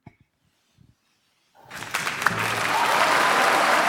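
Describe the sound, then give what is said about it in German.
After a brief near-silence with a few faint knocks, thunderous applause erupts from a large crowd in an opera house hall, greeting a singer's entrance in the third act and swelling quickly into dense, sustained clapping. “im dritten Akt wurde wieder von donnerndem Applaus begleitet.”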